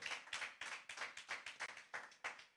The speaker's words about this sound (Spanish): Si usted lo cree, denle un aplauso fuerte, dale un grito de victoria. Come on.